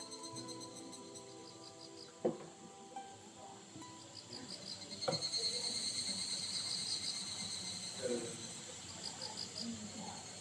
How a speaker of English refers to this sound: This is the sound of the densely forested Hida province, the northern portion of Gifu prefecture in the center of Japan. The mountainous region has roughly 52 kilohectares of natural forest, with 40% of the forest made up of conifers like cypress